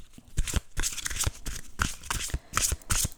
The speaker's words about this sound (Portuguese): E ele, as cartas são super fáceis de baralhar, super incríveis.